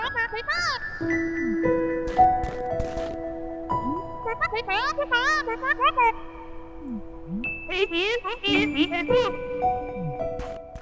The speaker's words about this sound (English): So obviously there's no voices you only get like a, it's almost like an anime face and then these weird little squeaking sounds which i'm sure will yeah which i'm sure will cue up right here